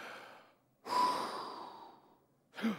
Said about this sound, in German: Und jetzt atmet … und sagt